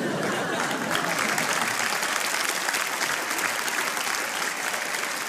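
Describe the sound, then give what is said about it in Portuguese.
Steady, dense audience applause for the host's four guests fills the whole stretch, many hands clapping at a constant loud level with no voices standing out. “Palmas para os meus quatro convidados,”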